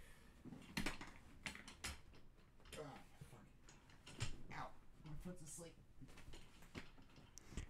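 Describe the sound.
An office chair mechanism creaks and clicks repeatedly in irregular bursts as someone struggles to put it together and adjust it, with faint voices murmuring in the background.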